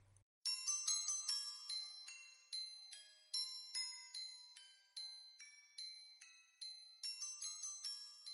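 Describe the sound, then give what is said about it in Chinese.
A mobile phone lying beside a pillow rings in the silent late night, its ringtone a bright, high-pitched electronic melody of quick chiming notes, repeating its phrase steadily for several seconds with no voices. “手机铃声在寂静的深夜里十分的刺耳”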